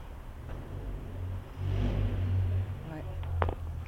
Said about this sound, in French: Et donc face à nous, on a, on a les toits de Paris, les chambres de bonne, on entend la rumeur de la porte d'Orléans.